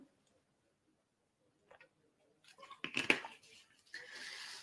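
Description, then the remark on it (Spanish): After a quiet pause, someone drinks water: a few sharp clicks and sloshing sips, then a steady soft rush of liquid. No one speaks. “A ver, un momento que voy a beber agua.”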